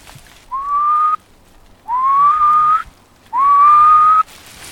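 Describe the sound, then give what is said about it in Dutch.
A person whistles an imitation of a male animal's mating or territorial call, the call most often heard from it and made only by the male: three clear, rising, slightly drawn-out notes, evenly spaced with short pauses, fairly loud, with no talking. “De roep die je het meeste hoort, dat is wat, wat dan de balsroep of de territoriumroep heet.”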